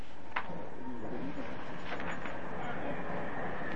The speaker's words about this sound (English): I'm sorry you have to really shout because there's lots of trains going by